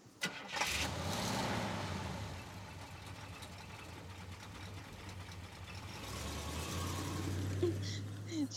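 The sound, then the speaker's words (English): A car engine cranks briefly and catches, then settles into a steady low rumble that swells slightly near the end, as if revved. “driving a stolen car in jackal costumes.”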